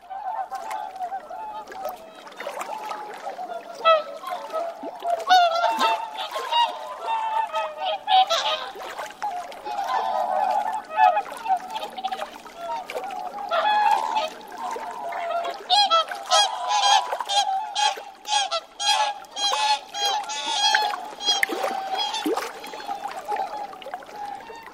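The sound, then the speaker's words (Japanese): A large flock of whooper swans calls continuously across open water at Lake Furen on the Nemuro Peninsula, Hokkaido, Japan, a dense chorus of honking, bugling notes rising and falling over nearly half a minute. “北海道根室半島・風連湖のオオハクチョウをお届けします。”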